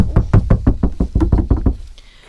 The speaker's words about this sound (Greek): Εκείνη την ώρα όμως που γίνεται η έκρηψη φτάνει και στην πόρτα του κάποιος χτυπά.